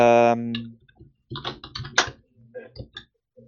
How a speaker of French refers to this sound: Ah, euh, moi j'ai l'impression que ça te perturbe que j'essaie de me reconnecter à Mastodon, en fait. C'est ça, c'était le clavier, le bruit de clavier